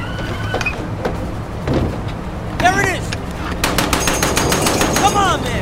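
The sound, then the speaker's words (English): A heavy .50 caliber machine gun on a truck fires loud, rapid bursts at a moving target, growing denser and more continuous toward the end, with rising and falling shrill tones and a rumbling engine underneath. “I can't move the 50 cal that bad.”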